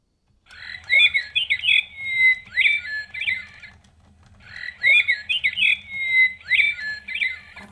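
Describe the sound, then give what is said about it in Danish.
A mechanical toy nightingale trills and warbles a bright, whistling phrase, pauses briefly, then repeats the identical tune a second time over a faint low background hum. “kunstige nattergal sang 33 gange den dag.”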